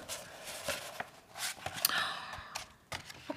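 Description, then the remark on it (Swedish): Crinkly paper rustling and tearing as a gift package, a paper roll, is opened and unrolled, with irregular bursts of crackling and sliding sheets, no voices. “Okej, ni ska öppna här nu. Det är en pappersrulle.”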